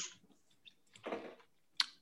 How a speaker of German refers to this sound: Dann äh, würfel ich kurz Juh. den Amor.